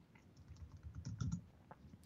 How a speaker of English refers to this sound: Typing. This is the sound of typing.